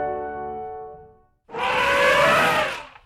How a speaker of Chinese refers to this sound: 哇，这是大象的声音，乖乖。